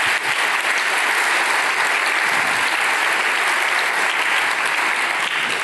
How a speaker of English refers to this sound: Yeah, they just they absolutely deserve a clap.